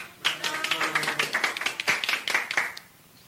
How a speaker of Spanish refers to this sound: cuando tocaron los mariachis, de una de las puertas que daban al pasillo empezaron a salir parejas bailando al ritmo de la música. Y al terminar de bailar, aplaudían muy contentos.